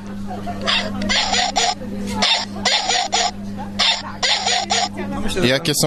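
A teddy bear toy's voice, a bear cub or adult bear voice played by a small device placed inside the toy: a steady, motor-like humming drone runs almost throughout, broken by rhythmic breathy, huffing bursts, fairly loud, fading out near the end.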